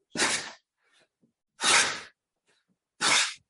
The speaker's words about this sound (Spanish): Vale, pues justo cuando me dejo caer le digo a los alumnos, deja salir el aire con libertad. Y entonces sería algo así.